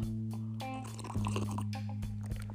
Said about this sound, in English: Let me sip on some of this water.